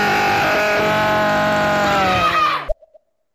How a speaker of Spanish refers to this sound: Increíble grito, la verdad, que sirve mucho para romper el patrón.